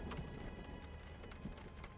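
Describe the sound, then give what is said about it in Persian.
Steady rain falling, a soft continuous hiss with scattered drops tapping throughout; fairly quiet and even, with no voices. “چشم بارون داره”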